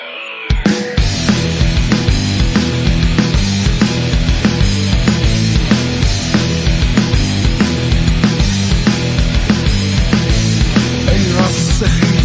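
A full-band pop song plays loudly and steadily, with a strong regular beat, bass and layered instruments, starting abruptly after a brief quiet moment; no one speaks over it.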